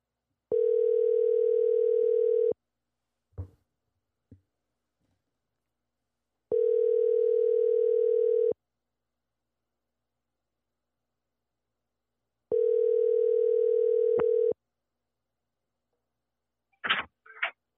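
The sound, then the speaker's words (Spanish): A telephone ringback tone sounds while a call is being placed: three steady electronic buzzes, each about two seconds long, repeating every six seconds with a few faint clicks between and no talking. “So, lo voy a llamar en 3, 2, 1 y de aquí cerramos el podcast.”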